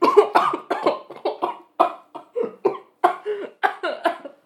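A loud coughing fit from a woman who started laughing while drinking a glass of water: a rapid series of harsh, hacking coughs in quick bursts, repeating steadily with brief gaps for about four seconds, with no talking.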